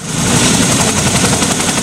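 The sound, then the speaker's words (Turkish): Loud, continuous automatic gunfire in rapid bursts from a Taiwanese military drill against a simulated landing at a military base in southern Taiwan, with defending troops firing from armored vehicles and attack helicopters, layered over a heavy low rumble. No voices are heard. “Üssü savunan birlikler zırhlı araçlar ve saldırı helikopterlerinden düşman güçlerine ateş açtı.”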